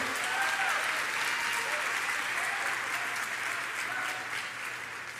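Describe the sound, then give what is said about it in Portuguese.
An audience bursts into a louder round of applause called for during a sermon, a dense wash of many hands clapping at a steady level for about five seconds before easing slightly at the end. “Não economiza, não, dá salva de palmas mais alta aí.”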